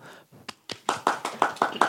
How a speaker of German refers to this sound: Auf jeden Fall nochmal Applaus.